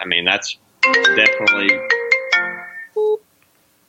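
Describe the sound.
A computer ringtone for an incoming phone call plays a bright, melodic run of electronic notes for about two seconds, loud, right after a person speaks briefly, followed by a short single beep.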